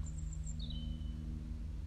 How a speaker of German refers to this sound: Ein wundervolles Konzert der verschiedensten Singvögel. Ich finde, es gibt nichts Entspannenderes als Naturtöne.